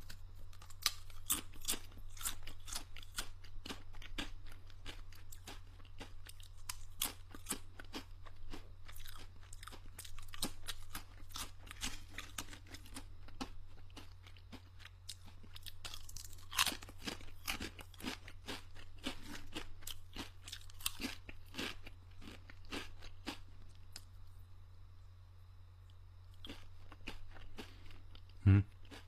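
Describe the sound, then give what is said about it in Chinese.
Crunchy snack chewing, a steady stream of crisp, crackling bites repeating over and over with a low steady hum underneath and no talking. “我已经尽量吃的很轻了，连舔手指的声音都已经尽量不让你们听到了。”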